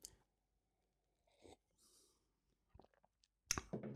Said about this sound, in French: Je prends encore une petite gorgée de café.